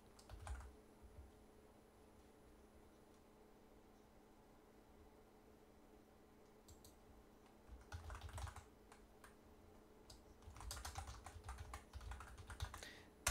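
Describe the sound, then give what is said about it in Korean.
Quiet bursts of keyboard typing as a chat message is written and posted: a few isolated key clicks early on, then longer runs of rapid tapping toward the end, with a faint steady hum underneath and no one speaking. “지금 제가 채팅글 하나 올렸습니다.”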